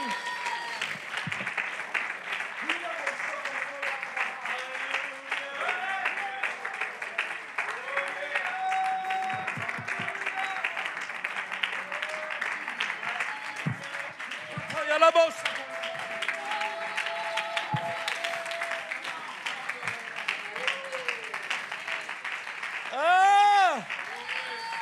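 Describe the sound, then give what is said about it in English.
An audience claps hands in a dense, continuous wash of applause, with voices calling out and a few rising shouts over the steady clapping. “I wish somebody would clap your hands uh, and magnify the Lord with me.”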